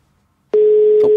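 After a brief silence, a telephone ringing tone on an outgoing call from a radio show to a listener cuts in abruptly: a single steady, fairly loud electronic hum that holds unbroken to the end, with no voices.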